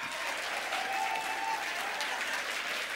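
Steady applause from an audience fills the whole stretch, dense overlapping claps at a constant, moderate level with no voices standing out.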